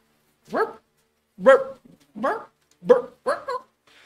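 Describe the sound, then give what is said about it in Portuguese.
Someone voices a string of five sharp, rising barks, imitating several dogs barking, fairly loud, each yelp separated by a short pause. “Começou vários de cachorro. E uma rinca de cachorro.”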